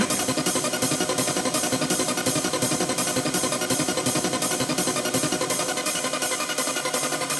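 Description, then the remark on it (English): A clean, undistorted synthesizer waveform plays steadily on its own, a loud, bright, buzzy tone with a regular pulsing rhythm of roughly two beats per second and no voices. “So here it is clean.”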